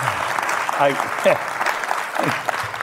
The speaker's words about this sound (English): You're getting a standing ovation. Do you see that?